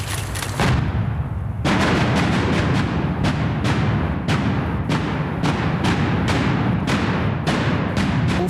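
The first construction blast at the third tube of the Gubrist Tunnel goes off shortly after 11:30 at midday with a loud boom, followed by a rapid series of sharp detonation cracks about twice a second over a continuous deep rumble, with no voices.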